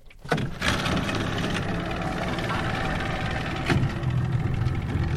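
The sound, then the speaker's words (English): A small boat engine idles steadily at a landing in Grand Bayou Village, a bayou community where the main street is a waterway; a continuous low rumbling drone with a few brief knocks and surges in level, and no voices over it. “meets me at the landing in a small boat.”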